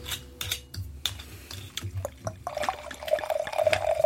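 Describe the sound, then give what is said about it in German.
A few light clicks and taps, then Silvaner wine from Buntsandstein (red sandstone) is poured into the left glass, a gurgling stream whose tone rises steadily as the glass fills. No one speaks. “machen wir die beiden äh, Silvaner auf und ähm, tun ins linke Glas tun wir den ähm, Silvaner vom ah, Buntsandstein.”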